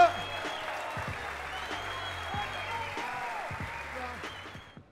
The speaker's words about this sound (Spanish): Un fuerte aplauso para los dos. Suerte ese aplauso.